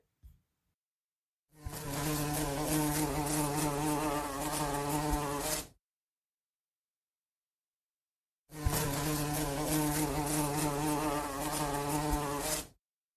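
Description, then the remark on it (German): A fat fly buzzes loudly in two sustained bursts of about four seconds each, separated by a few seconds of silence, with a steady droning hum. “Gegen Telle Wolgezig dormelt laut eine dicke Flieg.”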